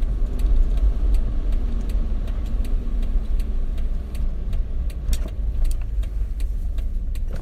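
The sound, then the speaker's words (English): A car drives along the road on the white line, with a steady, low engine and tyre rumble throughout, continuous, with faint light ticks recurring above it. “And why is this car driving on the white line?”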